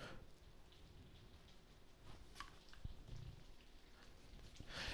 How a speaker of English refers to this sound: what's that clicking in the background? It's rain. Is it raining? Yeah.